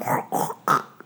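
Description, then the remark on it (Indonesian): A voice imitates a dog greedily eating, making three quick, gruff, throaty gulping bursts in close succession, fairly loud, followed by a faint trailing click. “anjing juga sih ini kayak ngerauk makanan dan itu kayak rakus banget nah itu suara begitu”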